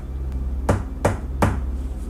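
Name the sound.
knocking on a door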